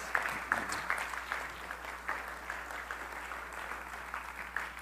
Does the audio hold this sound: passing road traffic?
no